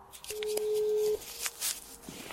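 A single steady telephone ringing tone, a plain hum lasting under a second, sounds over a phone line amid faint clicks and line noise as a return call is placed later the same afternoon.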